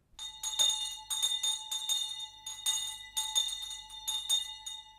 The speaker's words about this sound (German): Florenz, 14. Oktober 1445. Durch die Flure des neuen Findelhauses hallt die Glocke am Eingang. In dem Drehzylinder daneben liegt ein Neugeborenes.